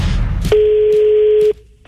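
A single steady telephone call tone sounds for about a second, loud, opening and closing with soft clicks before the line goes quiet, as a prank phone call is placed. No one speaks.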